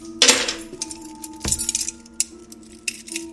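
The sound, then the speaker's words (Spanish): A large bunch of keys, taken up by the mayor, jingles in two bright, metallic bursts: a shimmering rattle at the start, then a sharper clatter, followed by scattered faint clinks. No one speaks. “Al llegar el alcalde y tomar ese gran manojo de llaves,”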